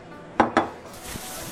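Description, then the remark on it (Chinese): A bowl and chopsticks are set down: two quick, bright clacks in close succession, then a soft, faint rustling hiss. No one speaks. “张逸晨放下碗筷，抹了抹嘴边的油渍，站起来，很自信的说道。”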